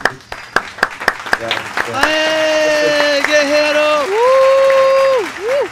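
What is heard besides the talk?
audience applause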